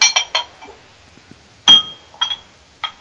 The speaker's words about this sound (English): it's from Pollyanna Brewing in Lemont, Illinois, and it's called Fun Size Milk Stout, but it's the maple variant, so it's maple Fun Size Milk Stout. So I'm gonna pour a little bit more in my glass